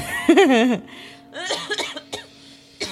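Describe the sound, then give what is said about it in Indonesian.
A string of several harsh coughs from a person, the first one rough and voiced, followed by a few shorter bursts with brief pauses between them. “Jadi bukan karena males ketawa, batuk.”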